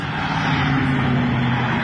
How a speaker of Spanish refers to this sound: Momentos después comenzó una persecución a la que se sumó un helicóptero